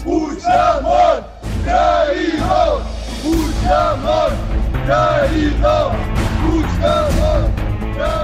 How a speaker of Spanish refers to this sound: nos hemos quedado parados en la calle de Diputación y siguen pasando estudiantes. Precisamente creemos que van a llenar la Plaza San Jaume en los próximos minutos. Una marcha de estudiantes convocada en el centro baja hacia la Generalitat.